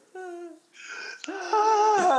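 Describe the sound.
A voice imitates asthmatic, wheezy heavy breathing in a few strained, whiny drawn-out breaths, fairly loud, growing more forceful toward the end.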